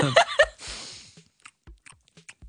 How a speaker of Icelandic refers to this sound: Já, baconbitar eru vegan og ég ætla að kjamsa á einu minna í mikrofónin og gá hérna hvort það sé gott content.